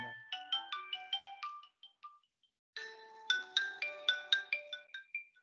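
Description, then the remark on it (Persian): A mobile phone ringtone plays a bright, chiming melody of rapid stacked tones in two bursts separated by a short pause, with no voices. “بله اجازه بده من این بله بله گوشیم زن کرد اینو خاموش کنم”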